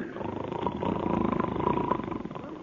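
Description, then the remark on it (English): A voice imitates snoring with one long, rough, rattling snore of about three seconds, steady and fairly loud with a fluttering buzz throughout, before it trails off. “I ain't asleep, but I is snoring already.”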